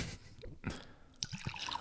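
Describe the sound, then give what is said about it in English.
Irish whiskey splashing and dripping into a glass, a quick pour from a very wide mouth breaking into several distinct wet drips and plinks, with no voices. “it pours way quicker because the mouth is enormous.”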